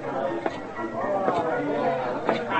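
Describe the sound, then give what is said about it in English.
Dense crowd chatter fills a saloon crowded by a trail herd outfit that just came in, probably the Circle B, many overlapping voices blending into a steady babble with a few brief sharper bursts rising out of the hubbub. “Where'd you get the crowd? Oh, some trail herd just came in.”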